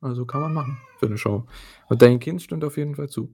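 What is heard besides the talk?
cat meowing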